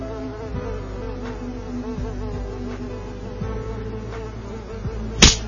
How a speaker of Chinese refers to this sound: 是苍蝇吗？ 是，还没有打， 打到了吗？ 打到了